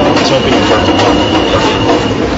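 A subway train rumbles past the Myrtle-Broadway elevated station, heard from inside a home with the windows closed: a steady, loud roar of rail noise with a faint metallic whine and a thin high tone running through it.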